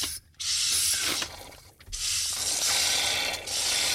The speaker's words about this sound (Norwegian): Det høres ut som det bruser over, egentlig.